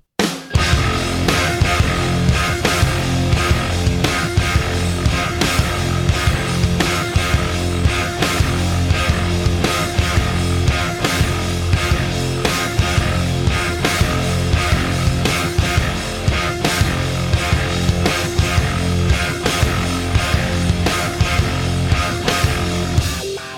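rock song

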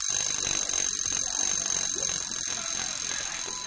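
alarm clock ringing

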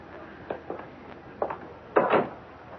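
door opening and closing

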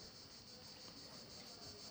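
cicadas chirping

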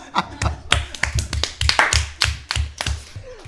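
audience clapping

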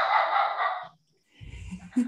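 dog barking

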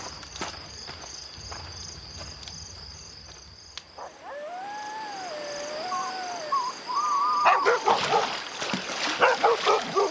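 dog barking

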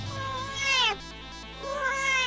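cat meowing

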